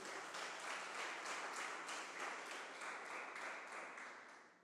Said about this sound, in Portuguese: Vamos aplaudir Jesus? Aplauda Jesus.